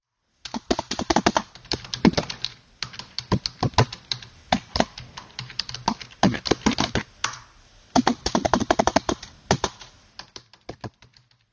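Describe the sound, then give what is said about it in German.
Rapid clatter of a computer keyboard being typed on, fairly loud, in uneven bursts of keystrokes with brief pauses between them; no voices. “Ja, also bei mir ist jetzt das Wort persönlich hängen geblieben und zwischendurch, glaube ich, was Tastaturklimpern.”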